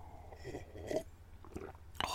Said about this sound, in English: Slurp of Tea